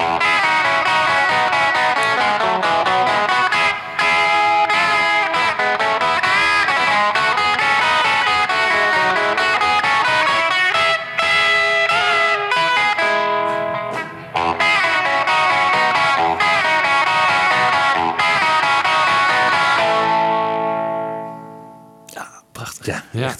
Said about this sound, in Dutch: Laten we even naar die twee gitaren eh, fragmenten uit eh, luisteren.